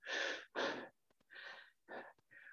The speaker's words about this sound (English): This little practice, oh, it's, it's a really great way to practice this is uh, your breathing, our breathing, our breathing in and out.